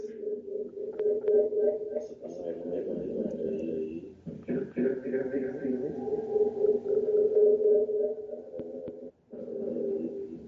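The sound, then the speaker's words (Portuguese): A loud, steady droning tone of audio echo feedback rings almost continuously on a Skype call, with a warbling, echoing quality and brief dips, while muffled voices blur underneath. “Nossa, tá um eco medonho, meu.”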